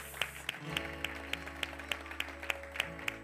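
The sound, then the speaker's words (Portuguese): An audience applauds the word of God, clapping in a steady, even rhythm, about three sharp claps per second, over a sustained low musical drone, with no voices heard. “Pai, nós te aplaudimos, Pai.”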